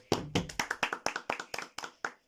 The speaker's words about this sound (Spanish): Aplausos en el estudio.